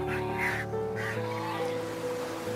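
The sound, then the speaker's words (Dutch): Loud, harsh gull-like cries of pterosaurs, Jurassic flying reptiles soaring above islands: several overlapping honking calls rising and falling, with a steady background of wind and rumble throughout and no talking. “Boven de eilanden zweeft een keur aan pterosauriërs, vliegende reptielen, de meeuwen van het Jura.”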